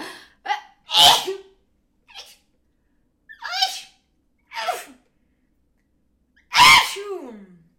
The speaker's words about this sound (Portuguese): Sim, isto foi uma sequência de espirros Uh, vou, vou andar para a frente, está bem? Eu sei que vocês devem estar neste momento em choque com estes sons que saíram de mim, mas é assim que eu espirro, está bem?